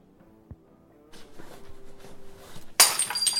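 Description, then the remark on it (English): A glass suddenly smashes near the end, a loud bright crash with tinkling shards scattering after it, preceded by quiet room murmur and a faint knock. “It's all right. It's only a glass.”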